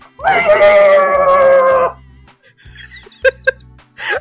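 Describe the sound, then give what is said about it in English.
A person lets out a loud, screeching shriek lasting under two seconds, imitating a pterodactyl scream. Its wavering, bleat-like tone is followed by a few brief squeaky noises. “was pterodactyl scream.”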